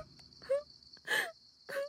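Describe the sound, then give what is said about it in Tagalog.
A woman wails and sobs in three drawn-out, rising cries, each separated by short pauses and a faint breathy hiss, fairly loud with no talking. “Natural lang na iiyak ng iiyak yun.”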